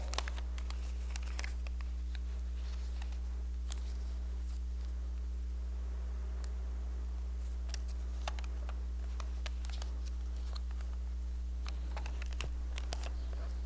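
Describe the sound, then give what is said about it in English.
A plain sheet of post-it paper is folded, with crisp crinkles and sharp creasing snaps in short, irregular bursts over a steady low background hum; no one speaks. “And actually, this one, I'm going to begin to fold it. like so.”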